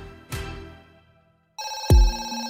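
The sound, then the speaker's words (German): A telephone rings early in the morning at RuPaul's, a call from Monica Lynch, head of the record label Tommy Boy Records, with a bright, metallic, sustained tone that starts suddenly and stays loud, after a short knock-like thump and a quiet lull. No one speaks. “Ein paar Wochen später klingelt es frühmorgens bei Rue.”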